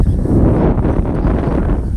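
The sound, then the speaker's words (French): Wind buffets a microphone in a steady, loud low rumble with irregular gusty surges, filling the whole moment without any voices. “voilà, le vent se lève.”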